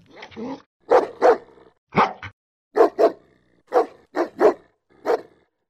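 A dog barks loudly, around ten sharp barks that mostly come in quick pairs, separated by short pauses. No one talks.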